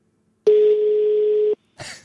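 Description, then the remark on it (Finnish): A single steady telephone ringback tone from a call made on a Saunalahti prepaid phone line sounds for about a second, a plain low hum from the earpiece, then a brief rustle or voice starts just after it stops. “Kun se ei kato tiedä tämä numeroa, kun tämä on podipuhelin tai ei ole meidän kummankaan ei se vastaa.”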